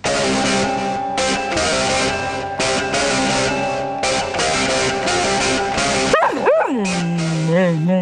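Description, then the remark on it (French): A hurdy-gurdy (vielle à roue), a string instrument with a crank dating back to the 12th century, plays a loud, buzzy droning tune with steady sustained notes and brief rhythmic breaks, ending in a few wavering, sliding whine-like tones. “Non, non, une vielle, une vielle à roue. Un instrument à cordes qui remonte au XIIe siècle avec une manivelle au bout”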